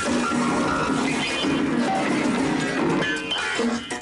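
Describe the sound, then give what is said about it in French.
A piano being smashed: a loud, chaotic crash of wood and strings, with jangling piano tones ringing through clattering debris for a few seconds before cutting off abruptly. “Vous taguez vos posts et quand j'entends ça, j'ai envie de casser un piano.”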